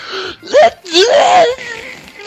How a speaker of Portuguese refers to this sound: Na hora que você estava falando, eu comecei, eu comecei a puxar o ar para espirrar.